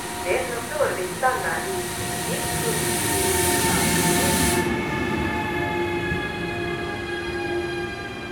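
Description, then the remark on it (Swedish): A passenger train, train 43 from Helsinki to Vaasa via Tampere and Seinäjoki in Finland, rumbles steadily, with a sustained mechanical hum and faint tonal whine; a few brief voice-like sounds appear at the start, and a bright high hiss fades out partway through. “Vi tog 43 från Helsingfors till Vasa via Tannarfors och Seinäjoki Tannarfors spår 3.”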